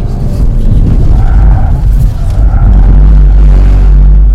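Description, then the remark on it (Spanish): The tires of a Cupra compact utility vehicle squeal in short bursts over a loud, steady engine rumble as the car is driven hard in Cupra mode with driver assists switched off, the screech rising briefly twice and fading back into the drone. “Espero estén escuchando esto, el rechinido, porque bueno, sí está, Paco está forzándolo y sí, estamos en modo Cupra, ¿no?”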